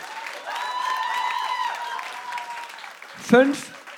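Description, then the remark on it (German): A crowd applauds steadily while voices cheer and whoop in sustained tones, then a louder shout cuts through near the end before the clapping continues. “Du hörst das Volk.”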